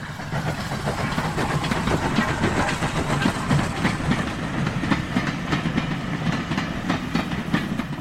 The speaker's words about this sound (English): brought to a halt at the distant call of a steaming locomotive and its trailing boxcars.